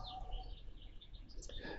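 Faint birds chirp and twitter, their light calls scattered over a soft outdoor background with a low steady rumble.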